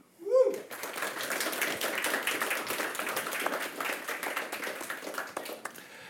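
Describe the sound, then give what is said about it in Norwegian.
An audience breaks into sustained applause for a panel of poets and critics, many hands clapping densely and steadily for several seconds after a brief voice at the start, the crowd sounding lively. “Vi får ta en applausrunde, for de er alle jeg bare sier det med en gang, poeter sjøl og kritikere.”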